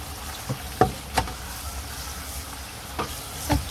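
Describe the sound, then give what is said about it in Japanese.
Heavy rain pours down in a steady, dense hiss, with a few sharper splats and drips standing out at irregular moments. No voices are heard. “聞こえるかなこのあのいつもの流しの流しのジョボジョボとはまた別のザッバザッバの雨の音すげえめちゃ雨めちゃめちゃ雨”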